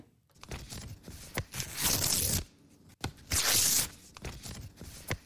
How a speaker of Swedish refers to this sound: Den här känns lätt. Den här känns lätt. Ja, jag tror vi båda kan hålla med om att det är någon som river papper. River papper, ja absolut.